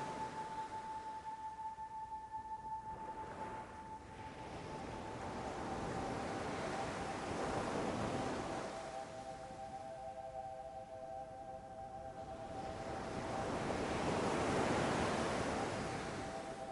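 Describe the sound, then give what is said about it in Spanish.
Ocean waves roll in and break on a beach in slow surges, each swell building to a soft roar and receding. A faint steady hum sits underneath, and no one speaks. “Si estás nervioso, enfadado o triste, puedes venir aquí y dejar que las olas te ayuden a relajarte para sentirte mejor.”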